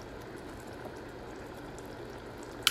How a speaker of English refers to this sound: All right, it's got to come to a boil. It's bubbling away.